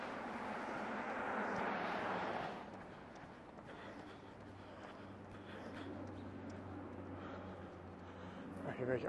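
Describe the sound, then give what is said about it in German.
A helicopter drones overhead in fine weather, first as a loud broad rush for a couple of seconds, then settling into a steady low engine hum that carries on throughout, with people talking faintly. “Was ist das? Hubschrauber.”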